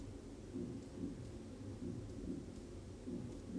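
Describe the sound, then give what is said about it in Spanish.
A muffled, low heartbeat thumps steadily at a calm, even pace, soft and deep like a pulse, playing in the background, with no voices over it. “Puedes hacerlo así al ritmo de los latidos que se escuchan al fondo”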